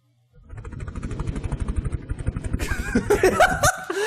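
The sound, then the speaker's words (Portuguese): A voice imitates a helicopter with rapid, steady chopping pulses, fairly loud, before breaking into noisier, higher sounds mixed with laughter near the end. “O helicóptero, o helicóptero.”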